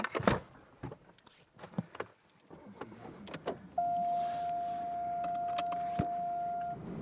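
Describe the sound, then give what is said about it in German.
Two cool boxes are loaded into a car trunk in a garage in Regensburg with several thuds, knocks and rattles, then a steady engine hum and a sustained high tone take over. No one speaks. “In den Kofferraum seines Autos packt er zwei Kühlkisten.”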